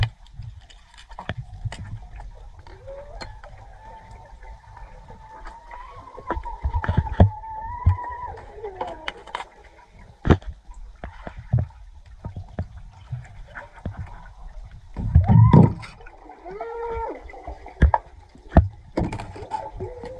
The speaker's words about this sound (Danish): Og det lyder virkelig uhyggeligt. Jeg tror lige, jeg skal genlytte det nogle flere gange, fordi at jeg hørte egentlig bare skrig, men jeg skal da lige prøve at se, om jeg også kan høre, at det lyder som om, at de råber help me og sådan noget.